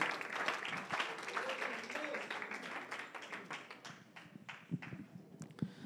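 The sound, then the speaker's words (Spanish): A church audience applauds for the Lord in a dense, steady wash of clapping that gradually thins out, leaving a few scattered individual claps near the end, with faint voices murmuring underneath. “Demos un aplauso al Señor y pueden tomar sus asientos.”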